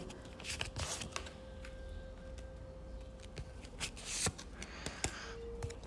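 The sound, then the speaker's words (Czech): A deck of cards being shuffled, with quick papery riffles and flicks in irregular bursts over a faint steady background hum, and no one talking. “Uh, já se ještě pojám přes druhé karty.”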